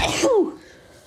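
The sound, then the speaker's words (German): One loud sneeze, set off by a tickle in the nose: a sharp breathy burst followed by a short voiced falling tail, then quiet. “Gesundheit. In der Nase jetzt an. Gesundheit.”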